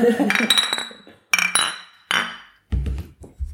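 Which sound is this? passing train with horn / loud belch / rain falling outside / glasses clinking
glasses clinking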